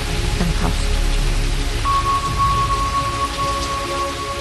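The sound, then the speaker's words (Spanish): Steady rain pours down continuously, a dense hiss of drops on surfaces with a deep rumble underneath, while a faint sustained tone hums in the background. “Pero no llovía. Bueno, Bueno, llovía.”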